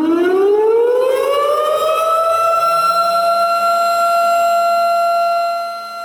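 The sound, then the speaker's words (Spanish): A loud civil defense siren, played as a spoiler warning, winds up from a low pitch to a steady high wail and holds it for several seconds, then begins to fade. No voices. “¿Sirena? Venga, dale. Venga, Sirena.”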